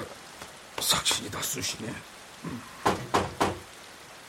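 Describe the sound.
Steady rain hisses softly in the background throughout, a constant wash of patter beneath a person's speech in the foreground.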